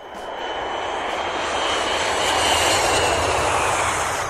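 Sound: airplane engine sound effect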